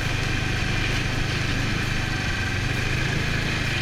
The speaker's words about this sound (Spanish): El día siguiente empezó temprano, a las 9, donde nos volvimos a equipar para el frío, pero esta vez para conducir una moto de nieve.